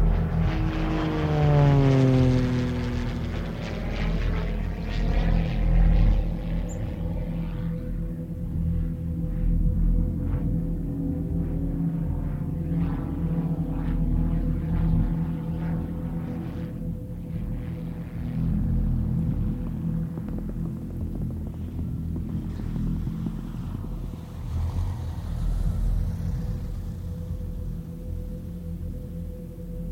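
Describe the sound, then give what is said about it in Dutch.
A small propeller plane drones steadily throughout, its engine hum loud with a rising whine early on, as it flies people to a mountain base camp at 2,000 metres altitude. No one speaks. “En uiteindelijk brengt een klein vliegtuigje ze naar het basecamp.”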